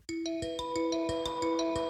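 A telephone rings with a quick, steady sequence of bright electronic tones, each note struck in a regular rhythm and sustained, clear with no voices.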